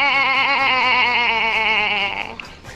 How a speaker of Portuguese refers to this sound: De repente, é uma, é um bezerro, sei lá, uma cabra, né?